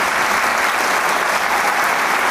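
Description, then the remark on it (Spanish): Steady, dense applause from a large concert audience at the Teatro Isauro Martínez in Torreón, a continuous wash of clapping at an even loudness throughout, with no voices standing out. “más ramos, ramos de flores y aplausos a través de este”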